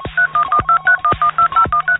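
A rapid, evenly paced string of about eleven telephone keypad dialing tones as a phone number is dialed, each a short clear beep, sounding loud with nothing else in the background.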